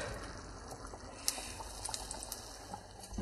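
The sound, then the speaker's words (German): Wet squelching and soft liquid drips as a small schnitzel is drawn through thick egg-and-flour batter and left to drip off, with a few small splashy ticks over a steady hiss of background noise and no talking. “Ihr zieht das dann schön dadurch, tropft das ein bisschen ab.”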